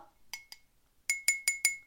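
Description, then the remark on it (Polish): A fineliner pen taps a drinking glass six times: two quick clinks, a short pause, then four evenly spaced taps, each a bright, ringing chime that fades quickly. No voices. “Aha, bo ja stukam tym cienkopisem, a powinnam chyba widelczykiem albo łyżeczką.”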